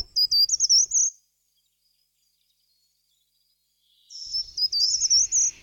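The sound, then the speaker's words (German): A treecreeper sings two short, loud, high-pitched warbling trills, each about a second long and separated by a few seconds of silence, with no voices. “Im Frühjahr vor allen Dingen, wenn er singt, dann nämlich klingt das schmetternd so, gar nicht so leise so.”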